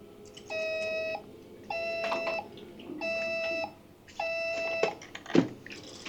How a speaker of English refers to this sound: Phone making a different ringtone noise every buzz.